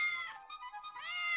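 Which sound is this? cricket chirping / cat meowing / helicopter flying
cat meowing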